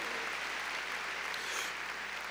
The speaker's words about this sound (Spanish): A ver, démosle palmas fuertes ahí a nuestro Señor.